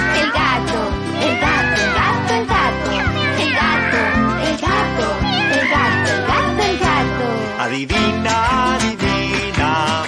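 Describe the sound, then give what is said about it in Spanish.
A voice sings a string of imitated cat meows ("miau"), repeated in a steady rhythm over loud, upbeat music with a driving beat, in a Spanish-language animal guessing song. “Maullo y ronroneo, miau, miau, miau, miau.”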